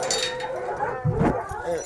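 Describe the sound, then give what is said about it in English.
Sixteen hunting hounds at a kennel, mainly Walker hounds of mixed breeding with some black and tan, bark and whimper together in a noisy chorus, with overlapping yelps and whines and a man's voice speaking faintly underneath. “So these are primarily walkers, but they're mixed breed dogs.”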